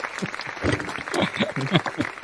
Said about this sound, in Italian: Mamma mia, vedi, un applauso proprio.